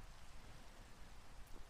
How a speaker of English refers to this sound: The rain soaked my clothes and chilled me down to the bone. It was there that I suffered for an unknowable amount of time, though the buildings around me weakened the wind to a slight frigid breeze and the downpour was barely tolerable.